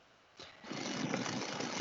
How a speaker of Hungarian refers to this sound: bedült a ventilátor a laptopjában